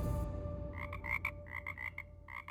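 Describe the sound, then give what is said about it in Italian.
Live frogs, gathered from the meadows around a hotel near a racing circuit and put into Ayrton's hotel room, croak in quick repeated bursts. Several overlapping calls pulse in a steady chorus over a low background rumble. Moderately loud, with no voices. “con la complicità di alcuni ragazzi giapponesi che lavoravano nell'hotel vicino a circuito, fece riempire la camera di Ayrton di rane rane vive e vegete, raccattate nei prati attorno all'hotel e trasferite nella stanza del suo amico brasiliano.”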